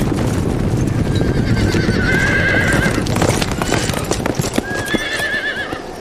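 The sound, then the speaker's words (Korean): Later Jin cavalry horses, sent out on a surprise raid, trot in a steady clatter of hooves on the bank of the Yalu River opposite Uiju on December 15. Loud whinnies rise over the dense clip-clop, once early and again near the end. “후금의 기병대가 출병해서 기습작전에 나선 것이죠.”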